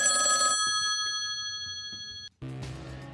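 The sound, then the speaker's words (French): A telephone bell rings loudly, a bright, sustained metallic trill lasting about two seconds before cutting off abruptly, followed by a burst of busier, fuller sound. “C'est le téléphone Ça re-ressonne.”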